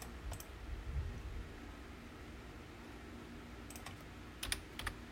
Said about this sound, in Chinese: 我很喜欢听，就是键盘打字的声音，可能跟以前念基础有关。就我觉得好听的打字声不容易。